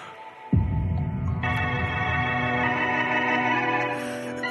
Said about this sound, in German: Ja, Spannungsmusik läuft, mysteriöse Atmo, Wassergeräusche.